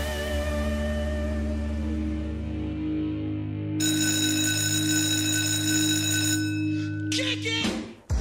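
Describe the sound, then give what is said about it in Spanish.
A school bell rings continuously for about eight seconds, signalling the last class of a Thursday, a loud, steady electronic tone that turns brighter and harsher midway before cutting off abruptly with a short clatter. “Sonó, ya sonó el timbre y nos vamos con la última clase de este jueves.”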